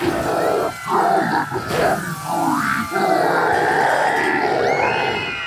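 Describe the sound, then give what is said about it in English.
A large crowd at a political rally roars and cheers with excited energy, many voices yelling and whooping at once in a loud, continuous wall of sound that swells and dips slightly throughout. “Wow, it sounds like people are really energized.”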